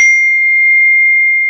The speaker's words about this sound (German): Das war mein Handy, Entschuldigung dafür. Ähm, ja, das tut mir sehr, sehr leid. Das war nicht mhm. so geplant. Dieses Handy.